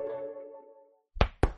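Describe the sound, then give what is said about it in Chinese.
Two sharp, solid knocks on a blackboard, about a quarter second apart, follow a fading tonal ring that dies away into a short silence. No one speaks. “皮大龙敲黑板，历史原来这么简单。”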